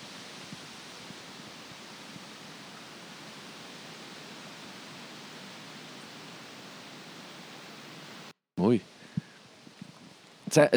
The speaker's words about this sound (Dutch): En ondertussen is er een windje opgestoken. Luister maar.